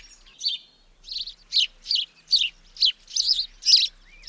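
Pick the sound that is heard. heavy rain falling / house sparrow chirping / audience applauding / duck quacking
house sparrow chirping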